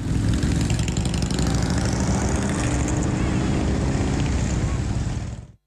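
A dense, continuous roar of many engines close by, a thick rumbling mass with occasional surges of revving, steady and loud before cutting off abruptly at the end.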